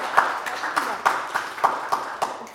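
An audience applauds, its clapping falling into a steady, evenly spaced rhythm of about nine beats over a constant wash of hand noise, moderately loud with no one speaking.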